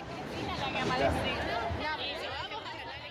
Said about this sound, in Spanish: Un senador más y se define, Terminal o jefa, se escucha entre los bombos y el ajite de la calle